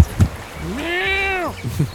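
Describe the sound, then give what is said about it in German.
A single drawn-out cat meow, clear, rising then sliding down over about a second, with a few soft thumps or handling noises just before and after it, as the cat is being let out. “Oh, warte, ich lasse direkt die Katze raus.”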